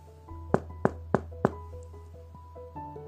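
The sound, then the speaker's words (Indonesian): At night, a mother knocks on her child's bedroom door to remind the child to go to sleep early: four firm knocks on a wooden door, evenly spaced. A soft melody plays quietly in the background, and there are no voices. “Mama mengetuk pintu kamar untuk mengingatkan Gina tidur lebih awal.”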